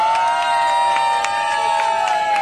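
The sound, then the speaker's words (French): A crowd cheers and applauds loudly and steadily, a dense wash of voices with sharp clapping bursts and a high sustained shout running through it, greeting the participants of a swimming event at an annual inter-school sports competition. “Applaudissez les participants de notre épreuve de natation.”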